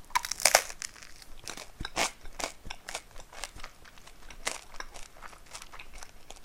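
Someone crunching on toasted bread: a steady string of crisp, crackly bite and chew sounds in irregular bursts, loudest at the start and then settling into quieter chewing, with no talking.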